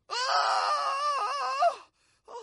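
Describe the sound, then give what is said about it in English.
A man lets out a loud, drawn-out scream, wavering in pitch for nearly two seconds, then cuts off; after a short silence another brief vocal sound begins. “When the young king heard this, he screamed”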